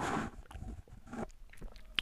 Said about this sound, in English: Hold on, I'm gonna take a sip of my green tea while I'm at it.